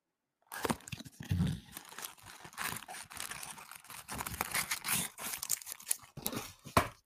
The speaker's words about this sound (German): Warte mal, ich knusper, äh, kn knister ein bisschen mit dem, mit dem Papierchen.